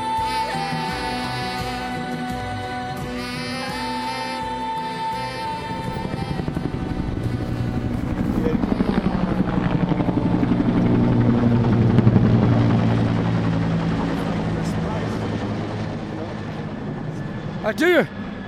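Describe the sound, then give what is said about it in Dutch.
Helicopters thrum overhead in the capital of North Macedonia with a steady rotor drone that swells into a louder roar midway, then stays loud. Voices can be heard talking faintly underneath. “Maar waarom zijn hier allemaal helikopters, politieagenten...”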